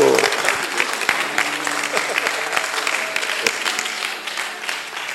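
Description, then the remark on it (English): An audience of husbands applauds steadily for a speaker addressing wives, a dense wash of many hands clapping for several seconds, with a few voices mixed in underneath before it eases slightly at the end. “Oh, clap for me, clap for me, husbands.”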